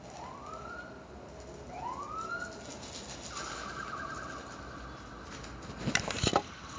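An emergency siren wails in rising sweeps, then shifts to a steady held tone, with a short burst of clattering noise near the end and no talking.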